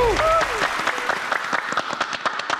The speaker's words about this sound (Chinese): 请揭晓，选了一个现场没有任何人看好的答案。真的鼓掌！